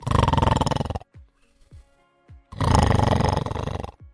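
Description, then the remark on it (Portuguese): Two loud, rasping snores from an old man asleep in a cart pulled by two donkeys, each lasting about a second and a half, separated by a quiet pause with faint clicks, with no talking. “Roncava.”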